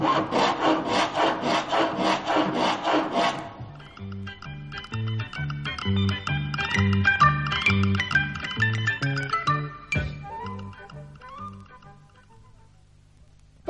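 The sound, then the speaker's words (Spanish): A wooden board being pried off the top of an old, worm-eaten piece of furniture: a few seconds of loud, rhythmic rasping strokes, then a long run of creaking, squealing wood tones shifting in pitch, ending abruptly with a sharp crack. “Hombre, aquí hay un mueble viejo y carcomido. Voy a sacar la madera de aquí. Quitaré la tabla de encima.”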